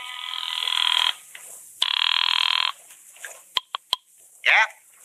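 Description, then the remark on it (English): A telephone rings twice, each a bright, buzzing trill lasting about a second with a short pause between, followed by a few sharp clicks and a brief warbling tone. “On my way out of there, I made two phone calls.”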